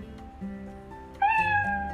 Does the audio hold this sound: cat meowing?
yes